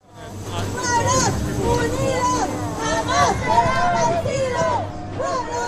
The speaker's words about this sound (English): Marching forward in the pouring rain, thousands of people press their point an urgent message from the streets of Glasgow to the decision makers staying dry inside the climate talks.